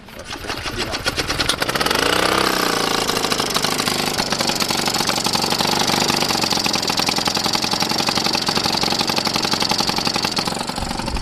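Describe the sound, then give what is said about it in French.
A small Solex moped engine is lowered onto the wheel and push-started: after a brief shuffle it sputters to life, revs up quickly, then runs with a fast, buzzing putter that stays loud until it cuts off. “Le moteur se baisse et ensuite ça démarre à la poussette.”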